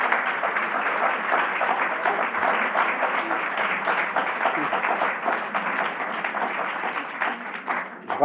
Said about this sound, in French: On peut l'applaudir.